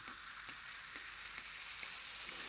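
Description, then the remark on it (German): Close-up crackle of a drink's foam fizzing, a dense, steady hiss of tiny popping bubbles with occasional brighter pops, continuous and fairly quiet, with no voices. “auf den Schaum. Ich habe erstmal ein bisschen ans Mikro ran, damit man das noch besser hören kann.”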